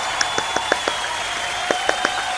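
A short burst of sparse applause, with about nine sharp, irregular hand claps at a moderate level, pausing briefly in the middle. No one speaks.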